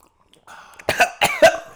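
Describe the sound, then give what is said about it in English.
A drawn-out slurp of hot coffee, then three sharp, loud coughs in quick succession, the last one the strongest. “I'm just giving y'all a slurp warning.”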